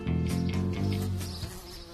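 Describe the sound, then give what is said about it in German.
A housefly buzzes steadily, its droning hum wavering slightly in pitch over two seconds with no voices present. “Früher gab es auf seinem Hof Unmengen an Fliegen.”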